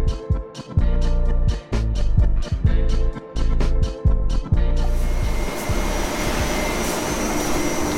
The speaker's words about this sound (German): ja, das ist also sozusagen das Herzstück von uns, unsere beiden äh, Druckmaschinen von äh, König und Bauer, unsere 5er bzw. 4er plus Lack und unsere 8 farb mit, äh, mit, mit, Wendung